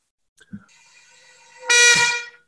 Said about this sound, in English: Right? It's, it's amazing. On a, on a bagpipe chanter reed, it comes in all of a sudden out of nowhere. It goes from no sound to sound. It's quite remarkable.